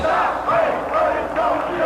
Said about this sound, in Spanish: Gritan consignas, protestan con firmeza.